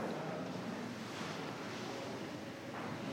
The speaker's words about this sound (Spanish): Escuchen. En la cocina hay sonidos. La cocina a mí me habla. Hervor de agua.